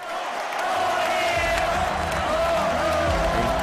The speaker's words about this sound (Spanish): Gracias y gran ovación.